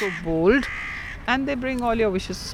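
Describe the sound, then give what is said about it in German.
A voice imitates crow caws: two loud, nasal, drawn-out calls, the first short and rising, the second longer and wavering, with a brief pause between them. “Krähen waren schon immer meine Lieblingsvögel. Sie klingen so anders, so frech.”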